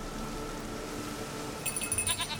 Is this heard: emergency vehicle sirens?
no